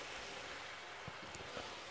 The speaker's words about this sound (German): So, die Pfanne war jetzt heiß genug. Jetzt habe ich das, das Hähnchen rein.